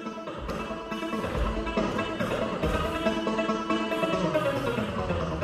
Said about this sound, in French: Ensuite, ces seniors ont pu tester la stretch machine, un grand anneau à l'intérieur duquel sont tendus des fils et il suffit de tirer ces fils pour faire du son, de la musique. Et on peut entendre en ce moment la stretch machine